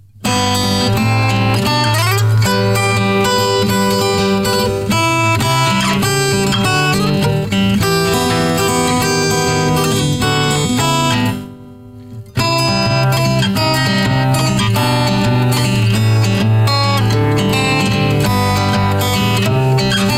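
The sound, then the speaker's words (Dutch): An instrumental guitar rendition of a song, played without singing, plays loud with a steady picked pattern running throughout, broken only by a brief pause of near-silence partway through before the music resumes. “en …, eh, even zonder zang,”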